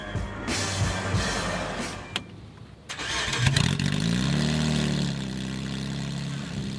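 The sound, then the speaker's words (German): A car's combustion engine cranks and catches around three seconds in, then revs up with a rising, rumbling roar that settles into a steady loud idle, with no talking. “Auch Verbrennungsmotoren erzeugen verschiedene Sounds und damit unterschiedliche Emotionen.”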